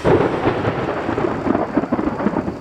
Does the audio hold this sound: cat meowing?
no